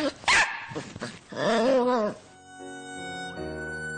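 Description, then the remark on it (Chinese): A small dog named Sonya gives several sharp, high yaps, then a longer wavering whine-like yelp, before a soft, steady musical tone takes over. No one speaks. “好在小狗已经跳到了一边儿，幸好我从里边跳出来了。”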